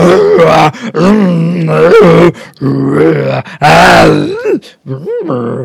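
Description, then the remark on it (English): A voice makes a string of long, rough, warbling growls and groans in imitation of a Wookiee, loud, in four or five drawn-out bursts with short breaks between. “yeah, I've just asked them, and then they'll know.”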